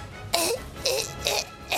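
A voice imitates an excited poodle with four short, raspy yelping bursts in a quick, fairly even rhythm, each one loud and breathy with a hoarse, coughing edge.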